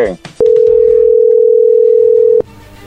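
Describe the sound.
A steady, loud, mid-pitched telephone ring tone sounds for about two seconds as a call is placed to a woman and rings through, with a brief murmur of voices just before it starts.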